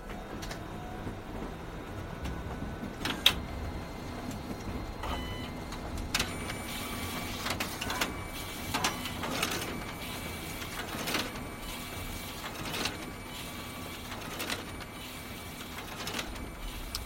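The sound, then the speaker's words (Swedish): A combined printer and photocopier at a library, started by pressing the green button, whirs steadily, with a series of sharp mechanical clacks and thumps roughly every second as sheets of paper are pulled through and fed out. “Ljudet av kopieringsmaskinen som matar fram papper och strax innan en instruktion om hur den ska startas.”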